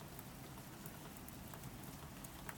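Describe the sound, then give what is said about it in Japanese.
Steady rain falls continuously, a dense hiss of drops pattering on a surface with no pauses. It sounds fairly soft and even throughout, with no voices. “彼の夢の中でもやはり雨が降っている”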